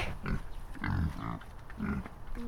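Pigs grunt and snuffle in a pen, a run of low, rough, rhythmic grunts in several bursts, fairly loud with no talking over them.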